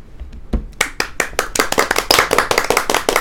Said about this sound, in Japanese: はい、えー、拍手喝采とともにスタートいたしますが